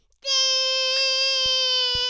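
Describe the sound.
A young child's voice holds one high, steady, sung tone for about two seconds, a playful vocal imitation of a toilet sound, fairly loud with no other talk.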